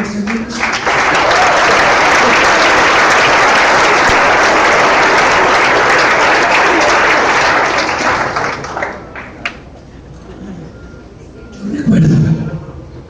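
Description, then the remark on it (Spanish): An audience breaks into loud, dense applause that holds steady for about eight seconds, then thins out and fades, with a brief voice rising near the end. “Un aplauso, por”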